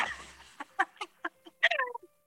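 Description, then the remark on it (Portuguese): A flock of gulls calling in a rapid string of sharp, harsh squawks that build into an overlapping cluster near the end, moderately loud, with no one talking. “incomodar um bando de, de, de pombas. Eu, eu disse que eram pombas, mas eram gaivotas.”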